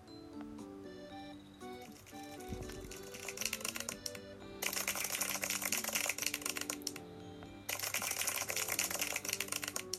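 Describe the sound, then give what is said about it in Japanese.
Recorded applause sound effect, played three times with the Radiotalk app's sound feature after a win, plays in repeated bursts of dense, crackling clapping: a softer first burst, then two loud full ones, over a steady background music bed. No one speaks. “いい形でね勝ったんで拍手を3回鳴らしましたけど聞こえました ラジオトークのあの音の機能初めて使った”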